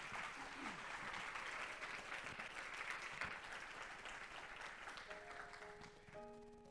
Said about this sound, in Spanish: ¿Alguien dice amén? Denle un aplauso al Señor, claro que sí.